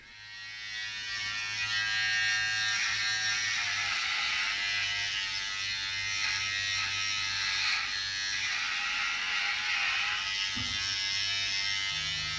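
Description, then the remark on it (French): An electric razor buzzes steadily for several seconds, a bright whirring drone with slight shifts in pitch as it moves, briefly changing tone near the end. “Euh, moi, ce qui me plaît surtout, c'est de tenir un rasoir entre les mains.”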